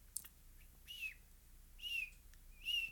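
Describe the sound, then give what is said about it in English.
A voice imitates ducklings peeping inside their eggs: three thin, high, slightly falling chirps, evenly spaced about a second apart, soft, with quiet background between them. “Now, when I really start to freak out is when I start to hear them chirping and they're not outside of the egg. They're still inside the egg.”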